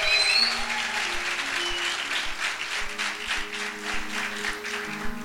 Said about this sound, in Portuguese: É, tem um monte de jovem aqui batendo palma. É isso aí, gostei também.